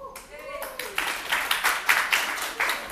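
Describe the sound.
An audience claps for a few seconds, a crowd of overlapping hand claps with a rough, fairly steady rhythm of sharp bright bursts, and a brief voice heard at the start.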